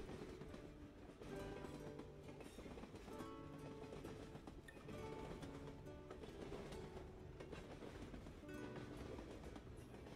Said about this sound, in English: drifting off as the train passes each section of the track.